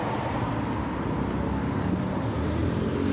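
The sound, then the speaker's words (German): A car passes quickly on a road at a police speed check, its steady engine and tire roar a broad low rumble holding level throughout with no other distinct sounds standing out. “da kommt einer, da müsste ich jetzt draufdrücken”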